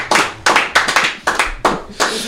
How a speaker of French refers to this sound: Bravo, on peut l'applaudir.